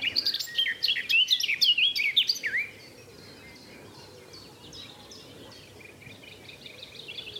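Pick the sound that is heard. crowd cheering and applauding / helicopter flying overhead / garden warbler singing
garden warbler singing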